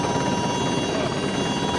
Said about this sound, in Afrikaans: En daar begin die trein stadig wegtrek die helikopter hang nog en ons beweeg nou kant toe